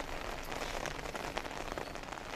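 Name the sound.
rain falling outdoors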